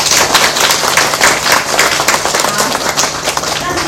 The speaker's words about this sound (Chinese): 我觉得今天真的哇，能量场很强，太棒了！每一个人都是能量饱满的样子，非常好，给自己一个热烈掌声。